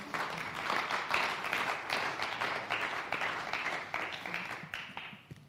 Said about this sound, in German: Domme ist mein Freiwilliger. Großer Applaus für ihn.